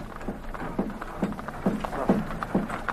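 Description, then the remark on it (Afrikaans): Steady clip-clopping hooves of a donkey cart loaded with a few household goods, about two or three hoof strikes per second in an even, plodding rhythm, with no voices. “Die donkie karretjie, 'n bietjie huisraad, nie een donkie.”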